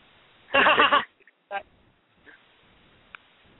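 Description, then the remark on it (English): A single short, loud moo from a cow with a wavering, bleat-like quality, followed by a few faint, brief sounds against a quiet background. “Cows, cows, cows.”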